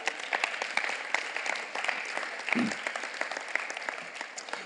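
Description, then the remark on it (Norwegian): An audience breaks into sustained applause for Jesus, a dense, even wash of many hands clapping steadily throughout, with a few sharper claps and a brief low murmur partway through. “En applaus for Jesus.”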